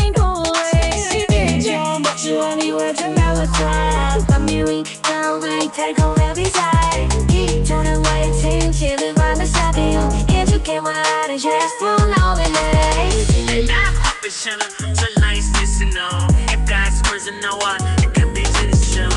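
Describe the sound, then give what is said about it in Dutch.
A loud, full AI-generated pop song, made from a text instruction by a Google model, plays throughout with steady beat, bass and bright instruments, topped by a singing voice whose words are blurred and can't be made out. “Ja, dat klinkt net echt. Maar ik begrijp wel niet wat ze zingen.”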